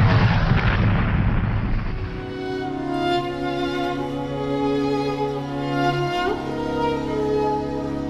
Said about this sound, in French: Derrière lui surgit un chasseur allemand. L'a-t-il vu Trop tard. Quelques rafales de mitrailleuses, son avion est touché. L'un de ses moteurs s'enflamme, l'appareil perd de l'altitude, puis devient complètement incontrôlable.